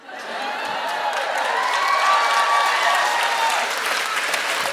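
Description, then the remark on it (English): A crowd applauds steadily, a dense wash of clapping that swells quickly and holds loud throughout, with faint whoops or cheers mixed in. “I went for it and people applauded.”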